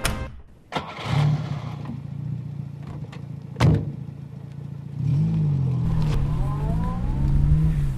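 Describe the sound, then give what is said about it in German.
A car door thuds shut, then an engine starts and settles into a steady running hum whose pitch rises and falls as the car drives down a hill in sunny Kandern. A second sharp clunk lands midway. “Den Berg runtergefahren.”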